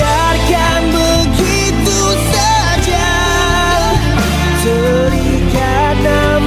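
The opening of a Malay ballad plays steadily and fairly loud, with full sustained instrumental backing and a smooth, wavering melodic line running over it, with no speech.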